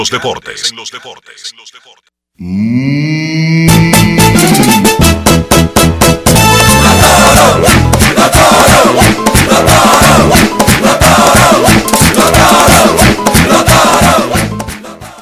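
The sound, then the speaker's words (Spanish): Licey baseball fans chant loudly in unison over a steady, pounding drumbeat, the rhythmic chorus continuing for several seconds after a brief noisy opening and a sustained rising tone. “Oye, pero muy bien que le quedó ese coro a los fanáticos del Licey escogido.”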